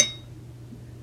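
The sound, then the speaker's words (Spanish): A single light clink of ceramic tea cups touching in a toast at night, ringing briefly at the very start and fading into a quiet, low background hum with no voices. “¡Salud!”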